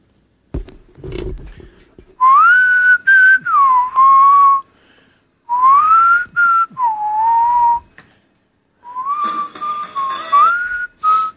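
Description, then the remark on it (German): Someone whistles a wavering melody in three phrases separated by short pauses, the tune gliding up and down. Light clicks and handling noise come before it, and no one speaks. “Pfeif mal.”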